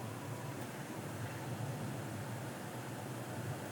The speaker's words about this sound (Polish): Zaraz mi się zacznie chyba woda gotować. Słychać jak pomału kuchenka gotuje coraz ciszej.